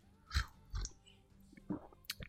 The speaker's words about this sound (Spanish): bueno, a ver, déjenme tomar un traguito de café.